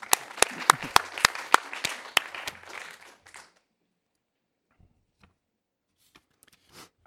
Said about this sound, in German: Ein großes Kompliment, eine Zeichner oder einen kleinen Applaus vielleicht ja. zwischendurch für den Zeichner.